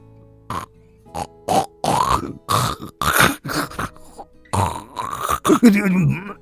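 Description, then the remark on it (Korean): A voice imitates a husband snoring as he dozes off over a book: a string of short, rough snorts and grunting breaths in an uneven rhythm, growing louder and ending in a drawn-out, wavering vocal snore. “남편은 졸다가 자기 코 고는 소리에 놀라 소스라치에 깨서는 수선을 피웠다.”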